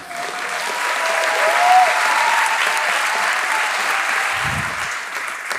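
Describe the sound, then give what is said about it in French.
Sustained audience applause, a dense wash of many hands clapping at a steady, fairly loud level for several seconds, with a faint murmur of voices mixed in. “Ça vous fait faire des paraboles et des paraboles d'applaudissements.”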